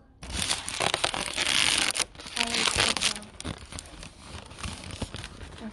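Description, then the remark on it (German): Loud crinkling of a balloon, crackly rustling bursts packed into the first three seconds, then fading to softer, scattered crackles and handling noise. “Warte, ich knister mit dem Ballon.”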